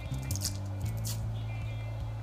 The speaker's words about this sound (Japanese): 今玉ねぎを剥いているところですが